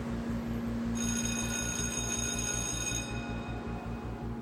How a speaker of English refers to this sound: A bell rang, calling the first class of the day.